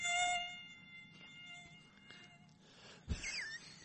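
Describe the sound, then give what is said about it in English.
A thin, high-pitched mosquito whine hovers, steady with a few wavering swoops, over quiet background noise and a brief low thump near the end. “Must be those stupid mosquitoes, mosquitoes, getting in here.”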